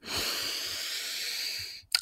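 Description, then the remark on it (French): A long, deep breath drawn in, a steady airy rush lasting almost two seconds, ending in a brief sharp puff of air. “Prenez une grande respiration.”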